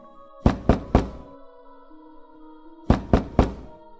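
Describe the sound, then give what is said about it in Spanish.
Two sets of three firm knocks by a man on a wooden bedroom door, evenly spaced, separated by a pause of about two seconds, over a faint steady background hum. “Tocó varias ocasiones la puerta sin obtener respuesta de su esposa ni de la partera, por lo que intentó entrar a la habitación.”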